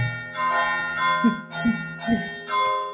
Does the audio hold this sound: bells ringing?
yes